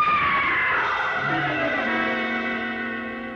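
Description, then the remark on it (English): A person lets out one long, loud scream that slides downward in pitch and rings with a reverberant tail as it slowly fades, with no talking around it. “Somebody screamed!”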